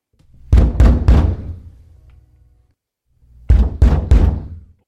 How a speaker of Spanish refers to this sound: Dos horas más tarde, ya habiendo anochecido, golpes en la puerta de Lucio de nuestra saga familiar despertaron a todos, menos al chiquito que dormía en el abrazo de Elia, la madre de Lucio.